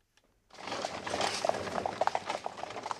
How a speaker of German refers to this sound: Wir verlassen Bonn, unsere Heimatstadt am Rhein, im Morgengrauen. Es regnet in Strömen. Die Pferde sind frisch, die Kutsche voll besetzt.